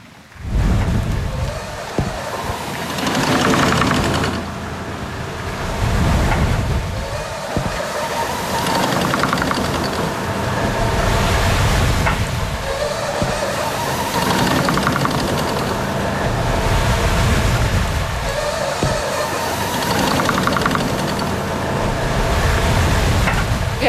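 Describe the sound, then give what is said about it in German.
A double-cylinder blast furnace blower in Peitz, with leather straps in its individual tubs, runs steadily to supply air to a blast furnace: a loud broad mechanical roar and rush of air that swells and eases in a slow repeating cycle every few seconds. No one speaks. “In Peitz gab es hierfür ein Doppelzylindergebläse.”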